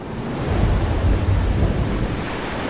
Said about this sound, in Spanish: En el verano de 1845, el barco inglés Rey del Océano se hallaba en medio de un feroz huracán. Las olas lo azotaban sin piedad y el fin parecía cercano.